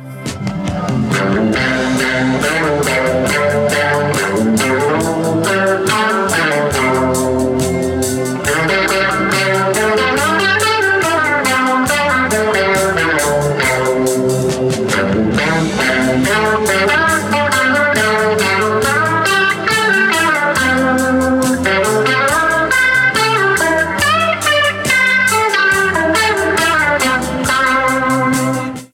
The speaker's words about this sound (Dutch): Die speelt de Telecaster. Dat klonk zo.